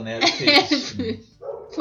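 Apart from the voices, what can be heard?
dog barking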